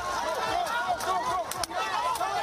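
A dense street protest crowd in Hong Kong, demonstrating against an extradition law, fills the scene with many overlapping voices, a loud, continuous roar of shouting and chanting that sounds surrounding, with no single voice standing out.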